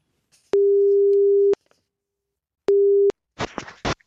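A steady telephone ringing tone sounds as a call is placed: one long beep, a pause, then a shorter beep, followed by a brief clatter as the line is picked up. No one speaks.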